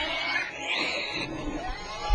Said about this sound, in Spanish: Sí, lo que escuchas, cosita santa, son unos puercos. Unos marranos. Unos coches.